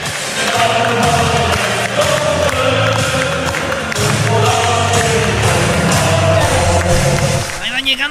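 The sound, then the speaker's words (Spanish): Hotel workers clap and cheer continuously for several seconds as the Tigres team arrives by bus at the hotel, with many voices chattering and calling out in a loud crowd atmosphere. “Llegó mi ahí llegó el equipo, salieron todos los trabajadores del hotel a aplaudirles, ah, aplaudir el himno de Tigres, llega en el autobús al hotel a descansar y toda la gente le aplaude.”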